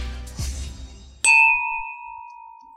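Wine glasses clink together once in a toast to the coming New Year, bright, leaving a clear ringing tone that slowly fades. Soft rustling comes just before the clink.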